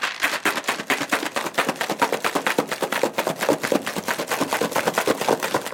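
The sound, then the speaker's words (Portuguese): Ice rattles in a cocktail shaker being shaken hard and fast to mix a caipiroska with lime, a steady run of sharp, loud clattering hits at a quick, even rhythm for several seconds, with no voices. “Vai só agitar.”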